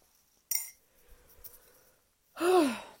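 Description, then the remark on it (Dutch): A drawn-out yawn near the end rises into a voiced, sliding tone that falls away, after a short bright clink and a few seconds of quiet breathy rustling. “ik blijf maar geeuwen.”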